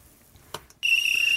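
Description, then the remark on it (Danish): A referee's whistle sounds in one loud, piercing blast that starts abruptly after a brief quiet moment and holds steady to the end, alone with no talking. “Vi fløjter den der”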